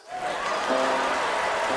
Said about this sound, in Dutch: Applaus!